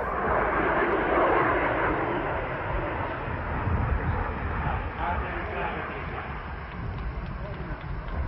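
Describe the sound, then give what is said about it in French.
A Franco-British supersonic jet airliner roars in on landing after its first flight, opening its brake parachute, a loud, steady engine rumble that holds for several seconds with a slight swell early on, and faint voices murmur beneath it. “Magnifique atterrissage, ouverture du parachute frein.”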